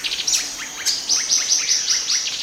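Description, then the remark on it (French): A mixed flock of small passerines of different species calling together, with overlapping high, thin chirps and short tweets repeating rapidly in a busy, continuous chatter, no voices. “On assiste là à un phénomène fascinant, une ronde de petits passereaux.”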